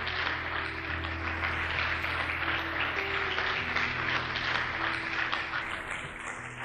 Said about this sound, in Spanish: Demos un aplauso al Rey. Aleluya.